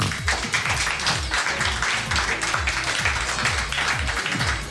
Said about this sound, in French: Et voici un homme, on peut l'applaudir.